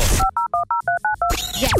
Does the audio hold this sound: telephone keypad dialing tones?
yes